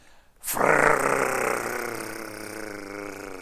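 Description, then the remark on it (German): A voice imitates the buzzing mechanical alarm of an old 1960s Jaeger-LeCoultre wristwatch, with a sudden onset and a steady, raspy drone that holds for about three seconds, fairly loud, with no other talk. “Die hat ein mechanisches Weckwerk. Das ist total geil. Die ziehst du auf und wenn der Wecker dran, wenn der Wecker losgeht, dann macht er”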